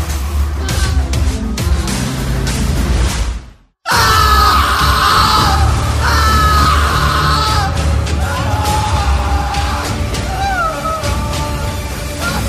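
A person screams loudly and repeatedly in drawn-out, wavering cries that seem to echo, over a dense, rumbling background that briefly cuts to silence before the screaming begins.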